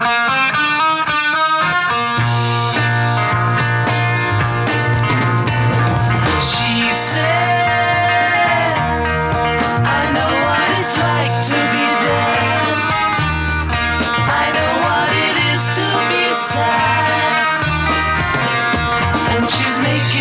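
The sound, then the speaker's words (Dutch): A full band plays a rock passage in a mono mix, with a steady bass line beneath a prominent, slightly distorted electric guitar, loud and continuous for about twenty seconds with no talking. “Dus even kijken, we even terugkomen op de gitaar, hoe dat in de mono-versie klonk.”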